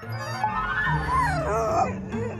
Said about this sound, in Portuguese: Volta e meia arreganhava os dentes e rosnava.